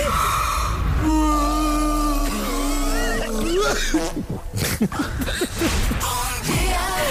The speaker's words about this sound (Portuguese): não consigo acabar os meus bocejos. Estou há dois dias com a sensação de que vou bocejar, mas fica a meio.